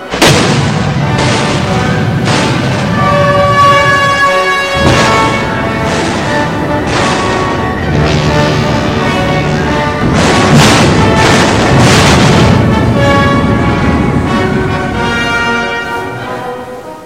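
Heavy naval artillery fire between warships in the Battle of the River Plate, the cruisers Exeter, Ajax and Achilles against a German battleship, booms again and again in an irregular barrage, loud, each blast rolling into a dense rumble over a steady tonal drone, with no voices.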